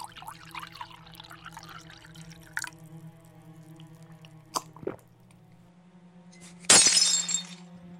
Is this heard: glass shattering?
yes